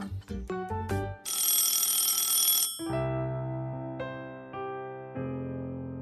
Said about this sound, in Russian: Очереди к нему становились все больше и больше, и целый день не замолкал телефон.